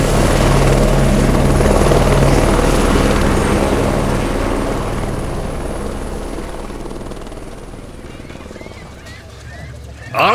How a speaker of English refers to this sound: That must be Kincaid's helicopter taking off. Painted black with a skull and crossbones on the side.